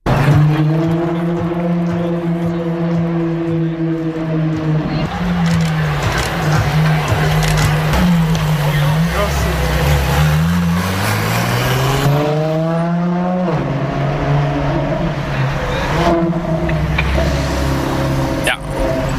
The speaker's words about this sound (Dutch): Voor sommige mensen herrie, voor sommige petrolheads een genot om naar te luisteren. En voor Ferraristi het onmiskenbare geluid van een Ferrari.